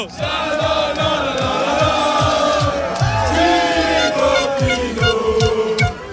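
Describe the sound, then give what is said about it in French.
A dense roadside crowd of cycling fans at bend 7 (virage 7) chants Thibaut Pinot's name and cheers loudly and continuously, with steady rhythmic thumps of fans banging on the windows of each passing car pulsing underneath the roar. “C'est assez impressionnant et très sympa, en tout cas, cette ambiance ici dans le, dans le virage 7.”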